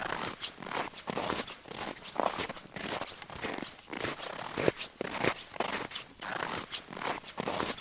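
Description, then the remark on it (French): Steady footsteps crunch across the frozen water of the Advenfjorden on a hike, about a dozen crisp, gritty steps on ice in an even walking rhythm, moderately loud with no voices. “Pendant que je marche sur la glace, je songe à la cohabitation compliquée entre l'homme et la nature dans cet environnement hostile.”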